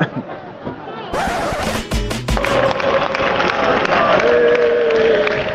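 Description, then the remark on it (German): A football stadium crowd at Fuenlabrada's home match against Malaga, near Madrid, with visiting Malaga supporters, roars and cheers: a dense wall of voices that swells after a second, with a few loud thumps or bangs and sustained chanting tones rising from the mass. “Hitzige Stimmung, aber auch guter Auswärtssupport von Malaga.”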